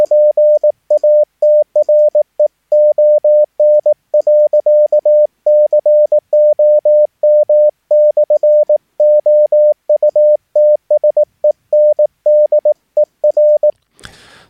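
A steady, mid-pitched Morse code telegraphy tone keys out a web address as a long run of short and long beeps in quick, even rhythm, loud and clean, ending with a brief burst of noise.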